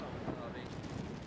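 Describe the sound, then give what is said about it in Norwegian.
A loud, continuous roar of hurricane wind on Sunnmøre, Norway, during the Christmas 2011 storm, buffets the microphone, with deep rumbling gusts and a broad hiss that never lets up during the short stretch. “Orkanen fra julen 2011 som blåste båter på land og brakk trær i to som fyrstikker.”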